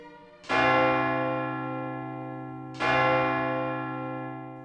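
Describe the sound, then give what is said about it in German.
A church tower bell right next to a hotel strikes midnight, tolling two heavy, resonant strokes a couple of seconds apart, each ringing out loud with a long, shimmering decay, with no voices present. “Der Glockenturm der Kirche befindet sich direkt neben dem Hotel. Das heißt, jede Stunde Glockenschläge.”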